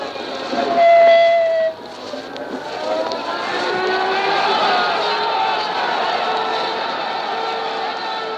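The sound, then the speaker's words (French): A siren in Verdun, France, probably at a commemoration, wails in long, sustained tones that rise and shift in pitch over a steady wash of outdoor background noise, fairly loud and continuous throughout. “Cette sirène, c'est peut-être celle d'une alerte aérienne lors d'un des moments intenses de la libération de la France c'est plus probablement une commémoration en juin”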